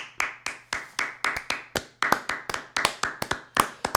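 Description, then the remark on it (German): Steady, brisk hand clapping, about four claps a second for several seconds, sharp and even in rhythm, sounding like just one or two people applauding with no voices. “Einen tosenden Applaus.”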